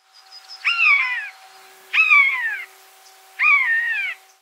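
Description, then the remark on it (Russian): Eurasian jay mimicking a buzzard: three drawn-out, downward-sliding mewing cries, evenly spaced about a second apart, clear and fairly loud against a quiet background, with no talking. “И сойка, и скворец, и на самом деле некоторые другие птицы подражают конюку.”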